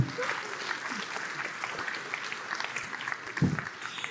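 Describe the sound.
A crowd applauds steadily for about four seconds, a dense wash of clapping with a brief louder burst near the end and faint voices mixed in.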